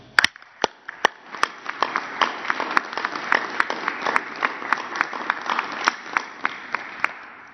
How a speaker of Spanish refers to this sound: También un aplauso.